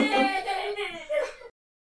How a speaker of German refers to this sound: da ist ein Baby, das offensichtlich äh, seine Mutter oder seinen Vater vermisst.